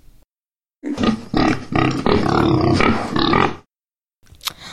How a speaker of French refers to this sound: Mais comment ça c'est simple, à force de se comporter comme des porcs, je les ai transformés en cochons.